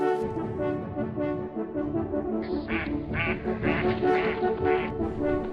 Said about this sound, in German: Im Visier Enten.